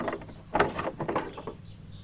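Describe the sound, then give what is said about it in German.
A front door creaks open with a series of rough, grinding groans and a brief high squeal near the end, moderately loud, with no one speaking. “Eine noch viel größere Herausforderung steht euch jetzt gleich bevor, denn ihr hört die Haustür knarzen.”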